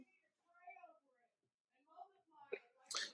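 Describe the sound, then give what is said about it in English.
Muffled voices of a loud conversation talk in the background in short intermittent bursts, not clear enough to make out words, ending with a brief louder, sharper burst of sound. “And yes, you can hear a very loud conversation in the background.”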